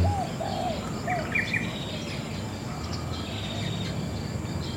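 Several birds chirp and trill in a garden while a dove coos softly, layered over a steady outdoor background hum with no voices.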